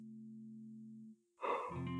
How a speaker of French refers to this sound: Et avec toute cette joie et cette confiance, vous pouvez également, si vous le souhaitez, vous étirer, les mains au-dessus de la tête comme un chat, en poussant un énorme bâillement.